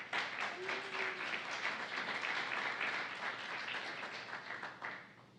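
A crowd breaks into sustained applause, a dense, steady wash of clapping that holds at an even loudness for several seconds before starting to thin out at the end.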